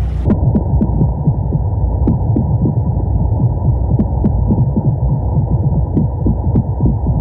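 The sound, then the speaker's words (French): Underwater hydrophone recording of brown meagre fish drumming: dense, low throbbing knocks repeating rapidly and steadily, loud, with faint scattered clicks and crackles above. “À l'intérieur de ce crépitement, j'entends donc euh, des bruits de tambour euh, qui doivent être euh, un mal de corbe.”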